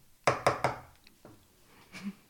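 Three loud, sharp knocks on a door in quick, even succession, followed by a fainter single tap and a soft low thump after a short pause. No one speaks.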